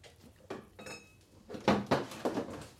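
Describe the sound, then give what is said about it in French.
Porcelain plate and cutlery clinking in a short flurry of sharp clatters, one with a brief ringing tone, followed by several quick scraping knocks of metal against the dish, as someone serves themselves another plateful. “Et je t'écoute, mais je vais me refaire une assiette en porcelaine.”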